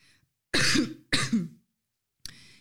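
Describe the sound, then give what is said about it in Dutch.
Someone clears their throat, two firm, rough rasps in quick succession, followed after a pause by a brief third, quieter catch. “Ehm, zo, nou, ik, krijg, ik, heb geen brok in mijn keel hoor, maar het is nu even.”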